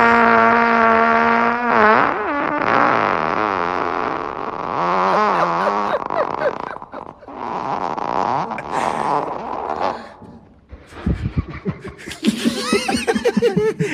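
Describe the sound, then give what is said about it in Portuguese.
A long, drawn-out fart into a porcelain bowl rings with a hollow, echoing tone, its buzzy pitch wavering up and down before it breaks into loud, sputtering bursts at the end. “O peido é, o tava peido, uma bacia. Peido, é o peido da porcelana, é o eco da porcelana.”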